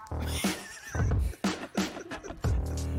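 A chair creaks loudly in several drawn-out, squealing bursts over about three seconds, its wavering pitch almost like a whinny, with no one talking.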